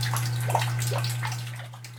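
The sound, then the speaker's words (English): Water gushes and splashes steadily from a burst pipe inside a home, fairly loud, with a constant low hum running underneath throughout. “Water lines have been bursting across the lower mainland, including sprinkler systems.”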